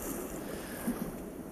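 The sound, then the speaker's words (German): A steady, rushing wash of sea waves fills the background, fairly even in level with a faint swell near the middle, blended with soft wind noise and no voices. “schön. Das Meer.”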